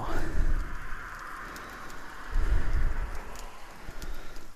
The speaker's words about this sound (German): Lassen wir es jetzt nochmal ein, zwei Minuten auf der anderen Seite richtig intensiv angrillen und dann können wir das Ganze hier auch, können wir den Deckel drauf machen dann qualmen wir hier nicht alles voll so.